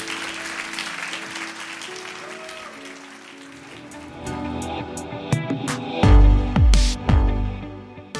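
A crowd applauds steadily with scattered clapping, giving a hand to people who have just been blessed and sent out, and music with deep bass thumps swells up underneath as the clapping fades toward the end.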